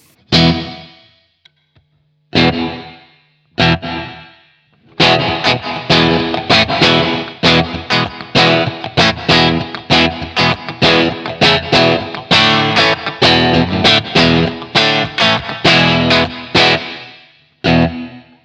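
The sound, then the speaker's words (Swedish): A loud, distorted electric guitar plays alone through a reverb set to a very short decay with the pre-delay turned up, adding a quick slapback-like echo, starting with a few separate stabs before settling into a steady run of strummed chords. “den blir lite så här, den blir inte som ett slapback-eko men den blir lite den effekten.”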